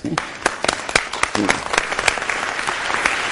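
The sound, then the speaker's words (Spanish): An audience breaks into applause, many hands clapping in a dense, crackling patter with sharper individual claps standing out, sustained steadily for a few seconds. “Un aplauso, por favor.”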